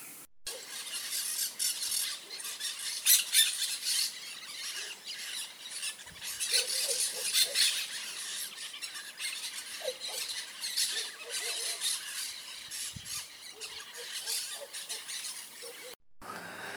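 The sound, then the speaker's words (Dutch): A large flock of large green parakeets with yellow heads chatters nonstop in the trees at sunset, around half past six in late January, a dense wall of shrill, overlapping squeals and squawks that rises and falls in loudness, with no voices. “Met zonsondergang laten de prikitsi's zich horen. Twintig minuten lang is het een hels gekwetter in de bomen.”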